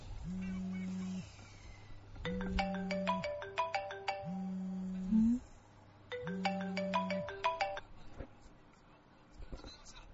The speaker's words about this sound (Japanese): あれ大輝の携帯かな